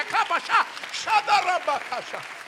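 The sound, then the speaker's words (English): An audience claps their hands amid loud cheering and shouting voices, the crowd noise rising and falling in steady surges throughout. “Somebody clap your hands again.”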